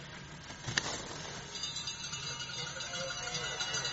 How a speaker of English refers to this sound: Anada can now hear the cowbells ringing as he comes into the lower section of the skate.